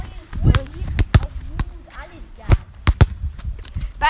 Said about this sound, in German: Wie ihr vielleicht hören könnt, wir sind am Fußball spielen.